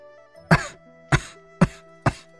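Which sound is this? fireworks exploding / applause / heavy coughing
heavy coughing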